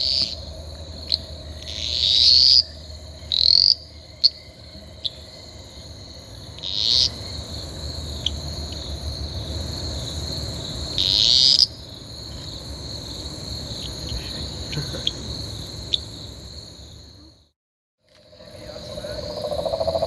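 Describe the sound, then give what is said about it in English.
Loud bursts of high-pitched calls from several small green male Eastern dwarf tree frogs (Litoria fallax), about half a meter away, repeated every few seconds over a steady, shrill chorus of frogs and insects, with a short near-silent gap toward the end. “So I'm only uh, about half a meter away from some of these calling Litoria fallax. Beautiful green males, fairly small.”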